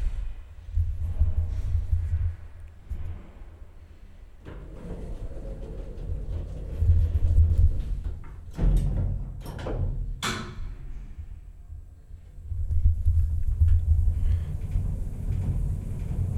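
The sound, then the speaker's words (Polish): A low, steady motor rumble of an elevator descending to a courtyard, with a few sharp mechanical clanks and rattles partway through before the droning hum resumes. “I zjazd na dziedziniec.”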